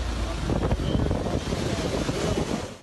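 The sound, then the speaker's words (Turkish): Strong storm wind at the coast roars across the microphone in a loud, continuous rush with gusty surges, and crashing surf blends into the din. No one speaks. “Marmara ve Ege bölgesinde kuvvetli fırtına bekleniyor.”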